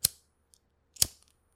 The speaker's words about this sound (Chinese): 还有就是可能有，就是店外面有人在抽烟的时候点打火机的声音